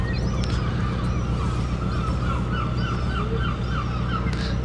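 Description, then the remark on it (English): Busy ambience of a working fishing port harbour with about 30 boats, a steady low engine rumble and repeated bird calls, gulls or waterfowl, scattered over it. The scene holds at a constant level throughout, with no voices. “It is still, by the looks of things, a working fishing port.”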